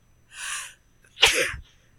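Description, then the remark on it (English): A breathy intake followed by a single sharp, loud sneeze right up close to the microphone, with no talking during it. “Pardon Ooh, me, I'm sorry for sneezing in the microphone.”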